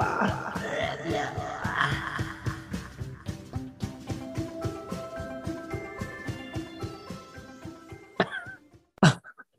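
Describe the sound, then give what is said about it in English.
A person imitates frog croaks with their voice, a steady rapid series of low, raspy pulses lasting several seconds, followed by a couple of short, sharp bursts at the end. “I can make sounds like frogs.”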